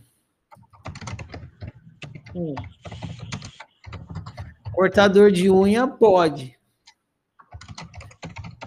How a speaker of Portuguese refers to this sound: Quem está digitando aí, põe no silencioso que tá um barulhão.